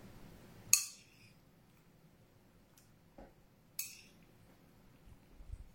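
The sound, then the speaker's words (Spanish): A spoon clinks against a dish of gelatin while someone eats: two bright, sharp clinks a few seconds apart, with a couple of softer taps between them and quiet scraping otherwise, no talking. “Antes, un poco de gelatina.”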